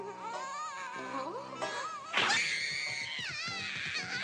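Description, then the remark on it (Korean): A cartoon child, the character Dambi, wails and screams in a loud, sustained tantrum, the cries rising sharply partway through and continuing in strained, high-pitched sobbing bursts. “얘 울부짖는 거또시작이”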